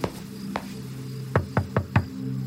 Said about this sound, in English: I knocked lightly on the door.